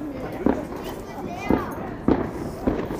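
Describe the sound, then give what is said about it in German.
Fireworks pop in the background, four sharp bangs spaced unevenly over a few seconds, with faint voices and a low outdoor murmur filling the gaps. “Naja gut, die ersten würde ich jetzt mal nicht sagen, aber schon ein paar Feuerwerke.”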